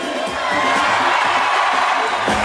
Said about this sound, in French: Un tonnerre d'applaudissements, faites du bruit pour l'enfant du pays, le retour à la maison de Thomas Bousquet.